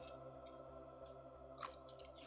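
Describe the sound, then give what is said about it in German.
Wet chewing with lip smacks, soft squishy mouth sounds repeating irregularly, with one sharper crunchy smack near the end over a steady low hum. “kann einfach mir zuhören beim Schmatzen.”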